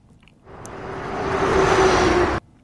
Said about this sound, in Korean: 이게 무슨 소리냐면요. UFO가 움직이는 소리입니다. 어, 아, 자동차인가요? 자동차 움직이는 소리예요.